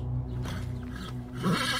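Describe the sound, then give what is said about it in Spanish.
Horses whinny nervously with an agitated, wavering neigh that rises near the end. About to drink, they refuse to approach a river bank. A steady low rumble and some shuffling movement lie beneath, moderately loud. “Cuando estaban a punto de beber los animales, desistieron de ello, y tanto nerviosos se empezaron a relinchar sin querer arrimarse a la orilla del río.”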